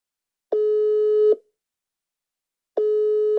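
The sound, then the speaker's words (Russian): A phone ringback tone sounds on an outgoing call placed for an interview: two steady, loud electronic beeps, each just under a second long, separated by a pause, with no voices. “И я на самом деле звоню ей, чтобы расспросить э, о совершенно”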